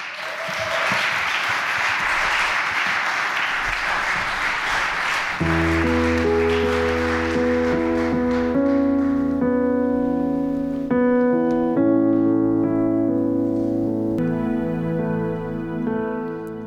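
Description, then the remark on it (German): Loud, dense audience applause for three people who gave their testimonies fills the opening seconds, then sustained musical chords come in and take over while the clapping fades beneath them. “Genau, mit dem fetten Applaus können wir direkt weitermachen.”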